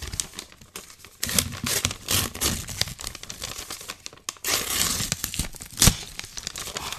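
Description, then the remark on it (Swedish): Tearing and crinkling of wrapping paper as a gift package is opened, with repeated rips and crumpling rustles over several seconds and a sharper tear near the end. “En jävla massa papper.”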